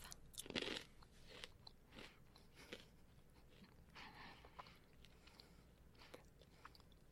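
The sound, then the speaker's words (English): Crunching of mini pretzel twists during a taste test, with a loud first bite followed by irregular, brittle crackles of chewing spread across several seconds, no talking. “Okay, the first sample we have is from the snack category, and these are mini pretzel twists.”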